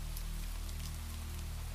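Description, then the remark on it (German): Steady cold rain pours onto a muddy cobblestone street under thunderclouds, a dense, continuous hiss with scattered droplet taps and a low rumble underneath, unchanging throughout, with no voices. “Kalter Regen spülte meinen nackten Körper vom Beutel frei.”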